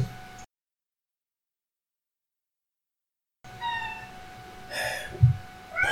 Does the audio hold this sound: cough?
no